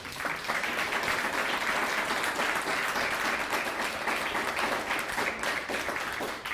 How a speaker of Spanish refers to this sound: Hoy, hoy estamos recibiendo aquí en casita a una familia que viene del, Estado de México y vino a ser Tevilá. Den un fuerte aplauso a ellos.